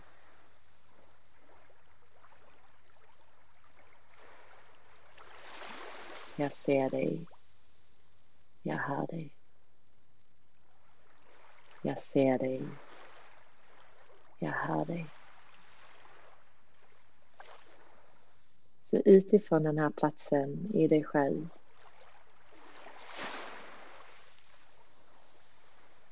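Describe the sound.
Soft ocean waves wash in slow, faint swells, rising and fading while a calm voice speaks Swedish affirmations in short, spaced phrases over them during a guided breathwork session.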